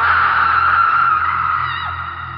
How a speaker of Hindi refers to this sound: उसका चेहरा जला सा था आंखें सफेद दो पल ठहर कर वो बस देखती है और एक भयानक सी चीख के साथ